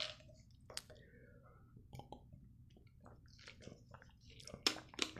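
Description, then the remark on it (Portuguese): Wet mouth sounds of someone drinking water before starting a recording: small sips and swallows with soft clicks and squishy gulps, fairly quiet, with a few sharper splashy bursts near the end. “Tomando uma água. Antes de começar.”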